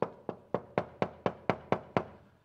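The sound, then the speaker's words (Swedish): Nine firm, evenly spaced knocks on a door, steady in rhythm, each a sharp rap with a short decay, with no voices over them. “Det är därför jag knackar på dörren.”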